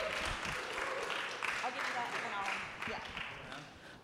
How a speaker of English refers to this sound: Give him a warm round of applause here.